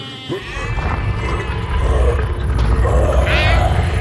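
sheep bleating

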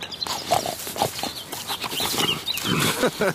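pig grunting

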